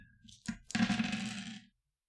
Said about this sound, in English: And let me get these dice ready.